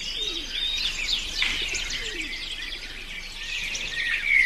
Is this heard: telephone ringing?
no